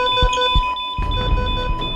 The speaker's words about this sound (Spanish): Sonaron las alarmas. Todo el personal del hospital se puso alerta